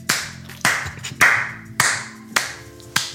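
Applause in the form of about six loud, sharp hand claps at a slow, steady pace, each one ringing briefly before the next. No one speaks.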